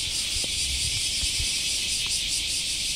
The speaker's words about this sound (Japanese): うわー、このセミしぐれね。あのー聞いてて涼しさは感じないね